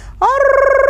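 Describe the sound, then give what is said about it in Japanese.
After a brief near-silence, a loud human voice breaks into a steady rolling trill, rapidly fluttering on one sustained pitch, imitating the 'aruru' call of the horoluse, a large bird of old, a sound also sung to put babies to sleep. “これがホロルセっていう昔アタネ鳥コッコ鳥っていう大きい鳥がいたと、はい、その鳥の鳴き声なんだってこの「あるるあるるろは。”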